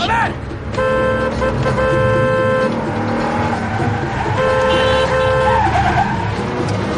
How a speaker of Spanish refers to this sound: Con brusquedad, detiene su todoterreno en plena calle junto a un edificio. Baja de él e interrumpe el tráfico para cruzar a toda prisa la calle en dirección al bloque de pisos.